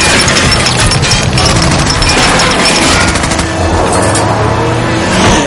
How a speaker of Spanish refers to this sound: Uno de los coches se aleja. Les disparan desde el otro coche.